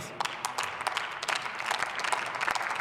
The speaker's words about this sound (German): Und das verdient, glaube ich, auch einen großen Applaus.